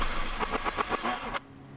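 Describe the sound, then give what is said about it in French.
A truck engine sputters in a quick series of uneven, coughing pulses as it runs out of fuel on the motorway to Lyon, then cuts out abruptly into near silence without catching. “On tombe en panne d'essence sur l'autoroute.”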